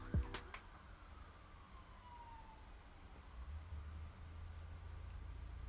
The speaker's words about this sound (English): The sirens and all the noise is done, man.